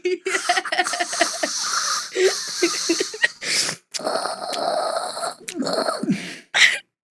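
Loud, wet slurping of hot coffee, several long airy sucking bursts in a row with short pauses between them.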